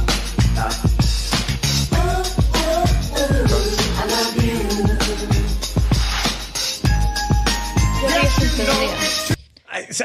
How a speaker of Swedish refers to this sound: Vi kan ju höra låten först då.